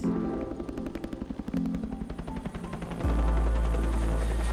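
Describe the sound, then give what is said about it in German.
A helicopter, its rotor producing a rapid, rhythmic thudding chop that gives way to a loud, steady roar as the engine surges near the end. It is flying off toward a hospital after hoisting an emergency doctor and an injured person on a rope from a mountain ridge, as rain begins. No voices. “Oben am Grat lässt sich Notarzt Werner mitsamt Jule über ein Seil zum Helikopter hochziehen und fliegt los in Richtung Krankenhaus.”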